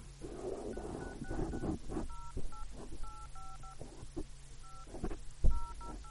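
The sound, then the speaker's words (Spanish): A rapid series of telephone keypad tones as a phone number is dialed to make a call: short electronic beeps entered in quick bursts with brief pauses between groups, over a low background hum and faint rustling. “He marcado un número.”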